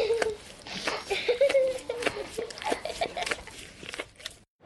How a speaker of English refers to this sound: Imagine it with headphones. It's like you're there and the dog is licking you. Video can't do that.